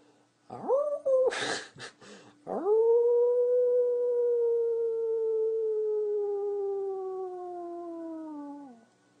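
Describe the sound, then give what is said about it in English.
A person howls during a guided breathing exercise: a brief rising wail and a sharp breath in, then one long, loud howl held for several seconds that slowly sinks in pitch before fading out. “Good, good. You know how to howl.”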